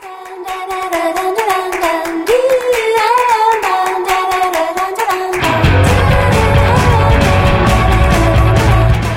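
An upbeat music track plays with a steady handclap-like beat under a sung or melodic line, then about halfway through heavy bass and a fuller, louder arrangement kick in.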